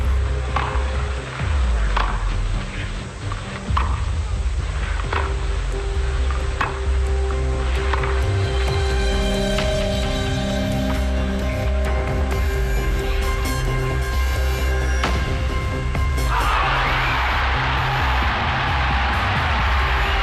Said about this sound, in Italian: Di nuovo questa musica con toc, di nuovo, di vario tipo, e la pausa, poi l'applauso, le grida e la musica del tennis in un concerto del 1976 contro Harold Salomon, Panatta.